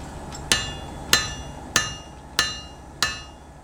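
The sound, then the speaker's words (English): Five evenly spaced hammer blows strike hot steel on an anvil in a forge, each a sharp clang with a bright ringing tail, at a steady, unhurried rhythm over a low background hum, as a blacksmith hardens the blade of a tarasca, a Gaelic peat iron. “The hammering is hardening the metal, it's, it's making the blade rigid.”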